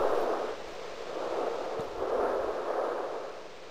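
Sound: ocean waves rushing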